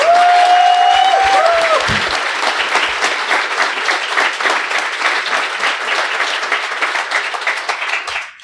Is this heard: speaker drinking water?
no